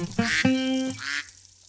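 A duck quacks loudly and close up, a quick run of two or three nasal, buzzy calls that stop abruptly, with no voices around them.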